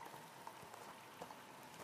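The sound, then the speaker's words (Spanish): Water from a waterfall splashes and patters into a large, clear pond in a grotto inside a mountain, a soft, steady wash with faint drips breaking through now and then. It sounds quiet and continuous, with no voices. “Sentís el sonido del agua y ves que a unos metros de la cascada hay una señora sentada”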